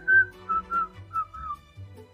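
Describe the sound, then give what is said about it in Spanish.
A person who cannot whistle tries to whistle, producing five short, wavering notes in an uneven, halting rhythm with breathy air noise underneath and no talking. “Yo, por ejemplo, no sé silbar, no sé chaquear los dedos”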